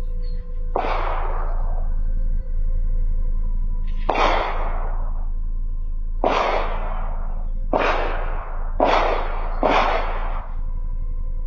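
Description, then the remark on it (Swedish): Six sharp pistol shots ring out at irregular intervals, each with a short echoing tail, fired at a man waiting on a bench among travellers and picked up from a distance by a villa's surveillance camera, over a steady low electrical hum with no voices. “Första smällen startar övervakningskameran vid villan en bit bort och skottlossningen fångas upp på filmen.”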